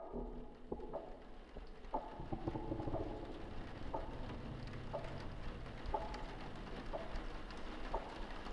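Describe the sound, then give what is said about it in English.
Steady rain falls, a continuous hiss with scattered drops pattering on a surface. Faint low cooing sounds drift in the background. No one speaks. “I can see the moon despite the rain.”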